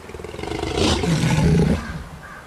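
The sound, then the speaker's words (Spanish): A 'tigre', called king of the forest in Latin America, in the Chiquitanía: its deep, rumbling roar swells up, holds loud for about a second, then fades into a low growling tail. No one speaks. “A nosotros los tigres nos dicen que somos un verdadero rey del monte en América Latina.”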